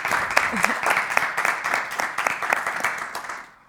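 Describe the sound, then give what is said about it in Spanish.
An audience applauds loudly and steadily to welcome a neuromarketing expert guest, dense overlapping claps filling the space for a few seconds before tapering off at the end. “Un fuerte aplauso.”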